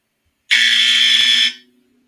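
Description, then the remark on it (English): A single loud, harsh electric buzzer blares steadily for about a second, then cuts off with a brief fading tail. No voices are present. “Now it's time for somebody to ring the buzzer on this shit.”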